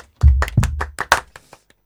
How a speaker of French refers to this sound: On applaudit. On applaudit.